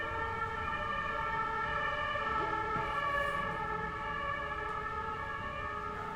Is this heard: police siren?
yes